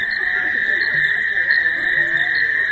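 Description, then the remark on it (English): A dense evening chorus of frogs and insects on the outskirts of a village in Zimbabwe, with a steady high-pitched trill running throughout and scattered croaks and chirps layered underneath, continuous and enveloping. “David Dunn recorded these sounds on the outskirts of a Zimbabwe village.”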